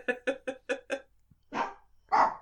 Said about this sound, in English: I think that was my dog.